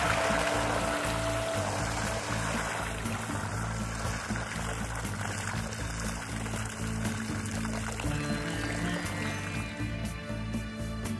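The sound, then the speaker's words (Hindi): Water from a clay pot pours onto a farm field in a steady, continuous, fairly loud gush, splashing onto the ground for the whole stretch with no break and no voices. “उसने वो पानी अपने खेत में डाल दिया”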